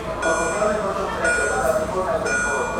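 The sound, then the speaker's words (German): A train rolls into a station with a steady, loud rumble and a thin high whine of brakes, while indistinct voices murmur in the background for the full few seconds. “Das ist schon der Zug. Nee, der kommt von woanders.”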